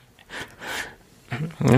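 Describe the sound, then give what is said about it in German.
A person clears their throat, a short raspy burst of breathy noise followed by a second, rougher and more voiced clearing. “Räusper, Räusper.”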